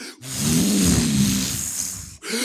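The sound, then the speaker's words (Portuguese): A person imitates thunder with their voice, producing one sustained, loud, breathy rumble that lasts about two seconds and then cuts off, with no other talking. “Eu, eu não consigo reproduzir um, um, trovão.”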